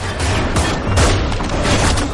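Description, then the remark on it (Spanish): A rapid volley of gunfire as four thugs aim and open fire at a car speeding toward them: several sharp, loud cracks in quick succession layered over a dense, rumbling background roar that stays heavy throughout. “Los cuatro le apuntan y comienzan a disparar.”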